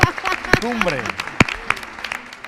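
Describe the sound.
An audience applauds with a steady wash of clapping and scattered sharper claps, while voices call out and cheer over it for a couple of seconds.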